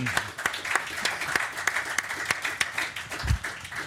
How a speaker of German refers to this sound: weil jetzt dürft ihr euch nämlich selbst applaudieren. Das beste Publikum, was wir jemals bei Fußball MML Live hatten ja. heute Abend hier live in Berlin.